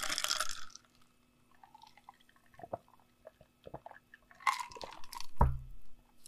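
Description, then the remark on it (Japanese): Several sharp glass clinks close to the recorder at uneven intervals, mixed with soft liquid and sipping sounds as someone drinks Real Gold Dragon Boost energy drink, recorded on a Tascam DR-07X. Fairly quiet with no talking. “とにかくこのタスカム DR07X がどんな風に音を取れるのかなっていう、なんかもっと面白い取り方とか、まあ、単純にこう声が今遠くから聞こえてる感じがあると思うけど、それに対してグラスの音が近くで、あの、聞こえるとか、なんかこの音の奥行きってのは今感じると思うんだよね。”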